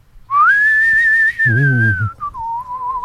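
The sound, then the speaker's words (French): A long, steady human whistle holds one pitch, then dips lower near the end, with a brief low voiced hum or murmur breaking in midway. Clear, with no other sounds. “si jamais vous entendez siffler entre 3h et 3 puis 3h et 5 du matin”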